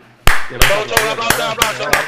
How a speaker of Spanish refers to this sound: Aplausos aplauso para ese dibujo